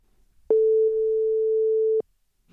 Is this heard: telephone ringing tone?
yes